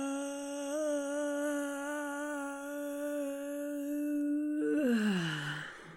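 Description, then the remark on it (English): A single voice yawns on one sustained, steady note for about four seconds, then the tone slides downward and breaks into a breathy sigh at the end. “Okay, now we're going to yawn on one note.”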